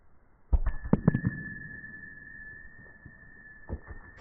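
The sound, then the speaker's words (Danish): A thrown metal boule cracks sharply into an opponent's boule, aimed to hit it without striking two other boules, with a couple of quick knocks as they bounce apart, followed by a clear metallic ring that lingers for several seconds. Fairly loud, no voices. “det, der er meningen nu, det er, at jeg skal ramme den her, uden at ramme de to andre.”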